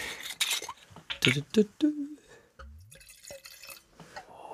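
A bottle of wurzelreich organic Cabernet Blanc wine is opened with a few sharp clinks and handling noises, then the wine glugs and trickles into a glass in a short, quiet pour.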